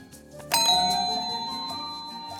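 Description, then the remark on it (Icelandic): A quiz answer bell is struck once, loud, its bright metallic ring hanging on and slowly fading over the next two seconds with no voices present. “Ó, hendunar eru komnar af bjöllun á nákvæmlega sjáu tíma.”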